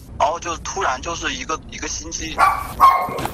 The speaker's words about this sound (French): Bonjour docteur. Tiens, le chien du docteur